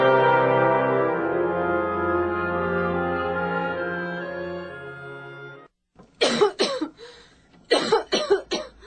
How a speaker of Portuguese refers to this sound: Aquela moça abatida, com acesso de tosse, chegara ao Luiz Gonzaga com uma receita médica. Estava tuberculosa. Duas hemoptises já haviam surgido como terrível prenúncio.